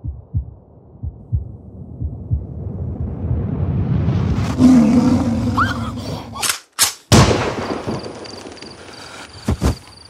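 Gunshots ring out after a swelling low rumble: two sharp, loud bangs in quick succession, then a brief pause and another pair of cracks near the end. No one speaks. The shots are fired at a tiger that is actually a hunting decoy, a portable speaker playing tiger roars.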